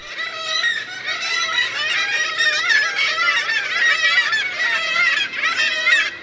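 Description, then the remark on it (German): A noisy chorus of black-legged kittiwakes calling continuously, overlapping nasal, wailing cries from many birds at once, loud. “Mein Vogel der Woche ist die 310-Möwe und wir hören nochmal ihren lautmalerischen Kiwi-Ruf.”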